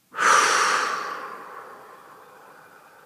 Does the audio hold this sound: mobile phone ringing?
no